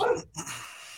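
A dog barks twice in quick succession at a person walking across the street, short sharp yelps, the first louder than the second, followed by a fading tail of background noise.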